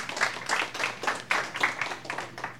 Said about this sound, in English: Thank you for the for the applause.